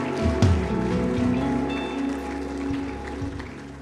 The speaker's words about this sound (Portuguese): Pode abaixar a tua mão, vamos aplaudir por essas pessoas, vamos celebrar a vida dessas pessoas, aleluia, aleluia.